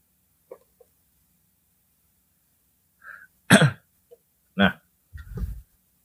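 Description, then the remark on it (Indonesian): A few sharp coughs, caused by ice, break a near-silent stretch, each separated by short pauses, followed by a low, rough throat clearing at the end. No one speaks. “nah ini ini batuk karena es ya”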